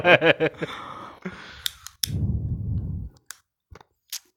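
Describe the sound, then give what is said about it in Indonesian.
A lighter is clicked to test its sound, clicking several times in sharp, irregular snaps, with a low rushing burst after one strike. A brief vocal sound comes before the clicks. “Iku mang ngetes, suarane cetekane korek metu ya.”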